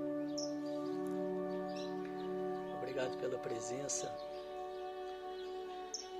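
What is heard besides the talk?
small birds chirping outdoors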